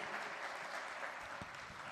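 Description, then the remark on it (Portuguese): An audience at a Portuguese-language church service applauds the name of the Lord Jesus at the end of a sermon, a dense wash of many hands clapping at once with no pauses, holding an even loudness for the whole two seconds. “Aplauda o nome do Senhor Jesus, glorifica a Ele.”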